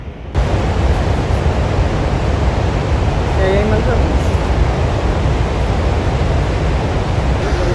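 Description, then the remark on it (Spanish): A roaring waterfall, Victoria Falls in Zambia, Africa, and its drenching spray surge in abruptly and hold as a loud, steady rush, with a faint voice briefly audible beneath the roar midway. “Ve lo afortunadas que somos que nos pudimos bañar con el agua de la cascada de Victoria Falls en África, en Zambia.”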